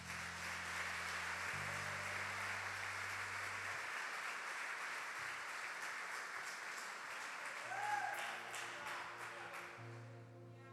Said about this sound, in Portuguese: Aplauda o Senhor Jesus.